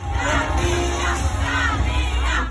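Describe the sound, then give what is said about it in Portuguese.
A large crowd at the Rock in Rio festival shouts "Carminha" loudly in unison at Adriana Esteves, a dense roar of many voices rising and falling in rhythmic waves for a few seconds, with no single speaker standing out. “Aí eu preciso falar de um momento maravilhoso que viralizou nesse dia de Rock in Rio, que foi o povo gritando Carminha pra Adriana Esteves, que tava ali num lounge curtindo o festival, gente, apenas maravilhoso.”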